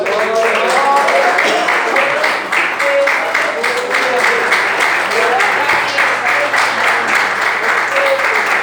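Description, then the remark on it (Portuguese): A church audience applauds Jesus as it sits down, steadily throughout, a loud, dense wash of many hands clapping, with scattered voices calling out over it. “aleluia podemos assentar aplaudindo a Jesus.”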